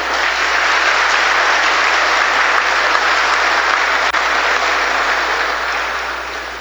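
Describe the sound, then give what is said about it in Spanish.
Steady applause from an audience at an official opening ceremony of the school year, a dense wash of many hands clapping at once that holds strong for several seconds before easing off slightly at the end. No one speaks over it. “Le damos un fuerte aplauso, por favor.”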